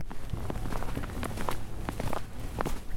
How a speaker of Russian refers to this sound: Вы знаете, что это за скрип? Это, Весна. это скрип весеннего снега. Мартовского весеннего снега.